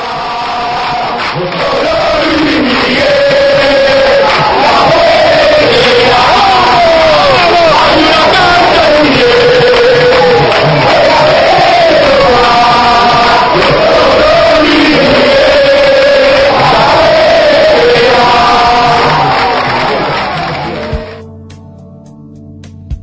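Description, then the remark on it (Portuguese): A huge stadium crowd of Vélez Sarsfield football supporters in Argentina sings their club song together, a loud, continuous, rhythmic chant with rising and falling melody that carries on for about twenty seconds before cutting off. “Mas a torcida tem a sua música e ouviremos ela agora.”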